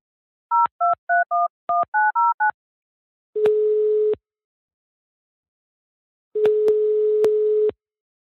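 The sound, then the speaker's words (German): A quick run of about eight clear telephone dialing tones, each a short dual-pitched beep, followed by two long steady ringing tones separated by silence, with no one speaking, as a show places a call to a person for a live link. “Egal, den rufen wir jetzt nämlich an.”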